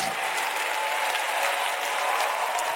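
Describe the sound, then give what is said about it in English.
An audience claps together as a clap offering to Jesus, a steady, dense wash of applause, many hands beating at once with a bright crackling texture that holds level throughout, no voices standing out. “Go on, give him a clap offering.”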